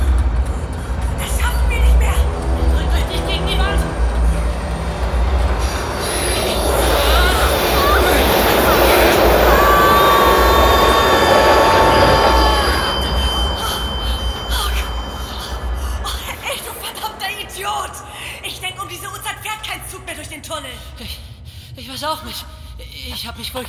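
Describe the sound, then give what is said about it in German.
A train rushes past, a loud rumbling roar that swells over several seconds with high metallic squealing tones, then fades as it moves away. “Dann lass uns jetzt einen Zahn zulegen, bevor der nächste Zug nicht kommt.”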